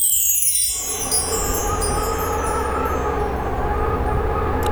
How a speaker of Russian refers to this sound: Ух, какой ветер! Ураган!